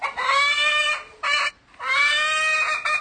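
A hen scratching in the ground for food in early spring clucks and squawks in drawn-out, wavering calls: a long call, a short burst, a pause, then another long call, with no voices.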